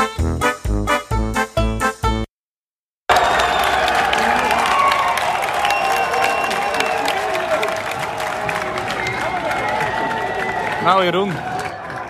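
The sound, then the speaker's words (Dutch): A crowd in the Žižkov Beergarden in Prague, Czech Republic, cheers and roars as Matthijs de Licht gets a red card: a sustained, loud wash of voices and clapping, preceded by a couple of seconds of punchy rhythmic beats and a brief silence. “je hoort het. Groot feest hier, want Matthijs de Licht krijgt een rode kaart.”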